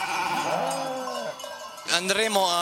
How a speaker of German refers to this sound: Hunde und Menschen erkennen die Schafe aus der eigenen Herde an den Glocken und Schellen, die sie um den Hals tragen.